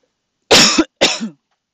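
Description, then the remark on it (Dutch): Two loud coughs in quick succession, each a harsh burst trailing off, with silence before and after and no talking. “Nee, ik moet even hoesten hoor.”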